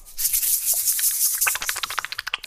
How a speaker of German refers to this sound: Reib nicht so deine Hände. Das hört man. Das hört man total laut. Ja, Entschuldigung, muss ich wieder eincremen.